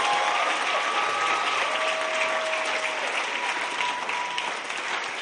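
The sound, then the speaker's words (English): A large crowd at a church service applauds steadily, dense clapping filling the whole stretch at a loud, even level, with a faint tonal hum threading through the noise. The applause is for people returning to their seats after receiving salvation. “Clap like you would like to see souls saved.”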